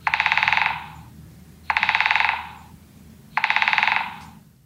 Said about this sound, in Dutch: Dus de grote bonte specht is de instapspecht. Gaan we nog één keer luisteren naar deze instapspecht.